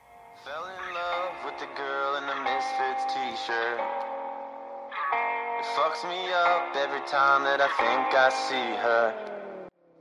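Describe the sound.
A song plays at a steady, full level, with a sustained melodic voice over layered instruments. It stops briefly around the middle, resumes, and then cuts off just before the end.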